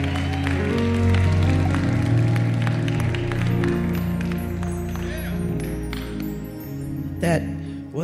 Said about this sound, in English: a good applause for the donkey. Now, if you would applaud the King of Kings and the Lord of Lords, the great I am, the one we love, the one we live for